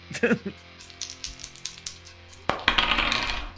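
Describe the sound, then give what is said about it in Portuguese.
Dice clatter and tumble across a table in a quick flurry of clicks, pause, then rattle again in a louder, denser burst. “Vou então, rodar pro. O Dogba tem pelo menos um bônus de faro”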